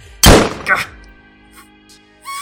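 A single loud, sharp gunshot cracks out as Bartholomew is shot in the leg, decaying quickly, followed by a smaller secondary burst and then low, quiet rustling before a faint rising sound at the end.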